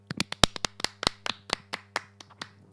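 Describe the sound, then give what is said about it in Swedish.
Applause from a small audience welcoming an announced winner: about sixteen sharp, separate claps in a loose, uneven rhythm over a few seconds, moderately loud, with no voices. “Ska vi applådera in ja.”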